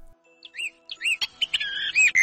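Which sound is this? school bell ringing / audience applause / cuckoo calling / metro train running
cuckoo calling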